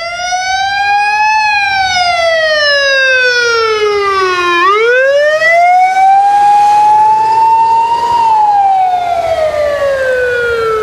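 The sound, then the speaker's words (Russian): A loud emergency warning siren in Vladimir region wails continuously, its pitch slowly rising and falling in long sweeping cycles with strong harmonics, dominating the scene with no talking. “Э, во Владимирской звук сирены.”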